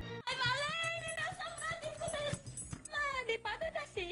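A small female dog whimpers in high, wavering whines that rise and fall, fairly loud, running almost continuously with a brief pause before a few shorter cries.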